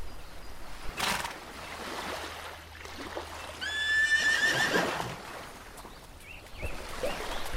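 A horse whinnies loudly, a high, shaky call lasting about a second, with a couple of sharp thuds and a faint watery rush around it and no one speaking.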